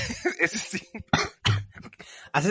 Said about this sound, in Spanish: casi haces que me ahogue con el café, chato.